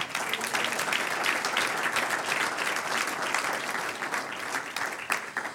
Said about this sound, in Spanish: Gloria a Dios. Un aplauso del Señor.